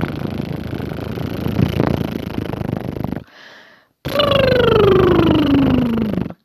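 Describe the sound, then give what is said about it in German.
A person does two lip trills, fluttering the upper and lower lips to imitate a horse snort as a loosening exercise for articulation: a rough, buzzing flutter of about three seconds, a short pause, then a second trill with a clear voiced tone sliding steadily downward in pitch. “Also zum Beispiel könnt ihr so ein Pferdeschnauben, ein Brrr”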